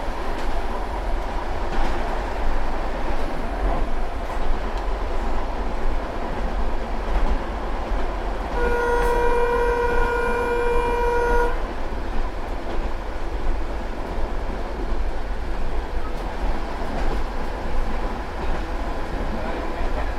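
A narrow-gauge train rumbles and clatters steadily throughout, and midway its horn gives one sustained, reedy toot lasting about three seconds before the running noise carries on alone.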